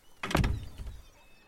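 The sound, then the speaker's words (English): Heavy doors are closed by guards, slamming shut with a deep, booming thud, followed a moment later by a softer second knock as they settle, the low rumble fading into quiet. “The doors close behind you. The portcullis lowers over the doors”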